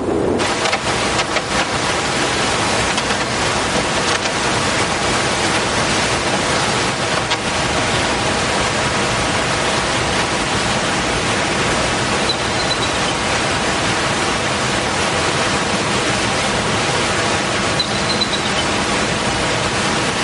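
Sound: waterfall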